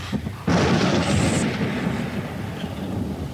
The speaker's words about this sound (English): And in Virginia and Brazil and down the St. Lawrence Valley, it shone intermittently through a driving reek of thunderclouds, flickering violent lightning and hail unprecedented.